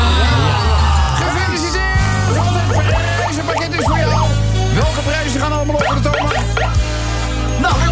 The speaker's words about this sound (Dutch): Nou, nog even, nog even met z'n allen. Juichen.